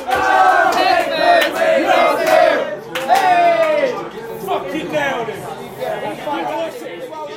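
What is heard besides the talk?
football fans cheering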